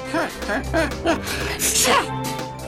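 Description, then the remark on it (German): A few short, rising voiced breaths build up to a single loud, explosive sneeze after sniffing a cup of tea filled with pepper, followed by a brief trailing vocal sound. “Gesundheit.”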